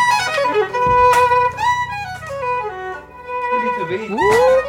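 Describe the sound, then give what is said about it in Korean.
A solo violin plays a loud live encore of the final part of its solo, sustained notes with expressive slides and quick runs, rising to a bright flourish at the end, with no talking. “아까 그 바이올린 솔로 예. 마지막 부분 그거 한 번만 아, 예.”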